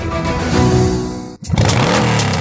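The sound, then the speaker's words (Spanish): A motorcycle engine revs loudly, its pitch climbing, then cuts out briefly before roaring back up again with a strong, rising whine. “Gánate una super moto Benelli con los números ganadores como Ultrasan.”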